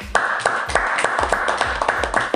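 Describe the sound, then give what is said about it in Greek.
Steady hand clapping, roughly eight sharp claps at an even, moderate pace over a couple of seconds, fairly loud and with no voices over it. “Νομίζω ήταν εκπληκτικό και αξίζει ένα χειροκρότημα.”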